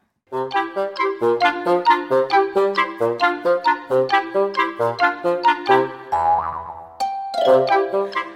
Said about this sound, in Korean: 여러분 듣다가 뾰로롱 소리가 나오는 부분에 가사 맞춰주세요.